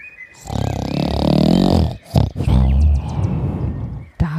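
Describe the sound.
A giant snores loudly enough to shake the whole house, deep snoring rumbling through two long drawn-out snores, each a rough, growling breath lasting over a second, separated by a brief pause and a short sharp sound.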